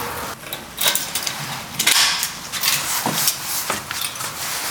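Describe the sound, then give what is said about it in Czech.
A metal grille gate in a castle, on the way to the lords' oratory of its church, is unlocked and pulled open: a few sharp metallic clanks and rattles, then a scraping creak as it swings, with no one speaking. “Ještě nás čeká jedna mříž.”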